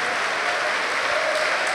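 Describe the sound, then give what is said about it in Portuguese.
A church audience applauds the word of God during a sermon, a dense, continuous wash of many hands clapping at a constant loudness throughout, with no voices standing out. “E enquanto você aplaude, dá glória a Deus e diga: Glória ao teu nome, Senhor.”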